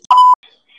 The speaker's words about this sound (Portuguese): Não, botei o microfone pra cima, mas é tipo assim, uma buzina que parece que tem um submarino aqui na minha porta.